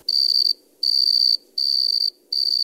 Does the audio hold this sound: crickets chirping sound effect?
yes